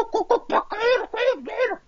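A rapid series of about six loud, harsh bird calls, squawking notes that rise and fall in pitch, following one another almost without pause.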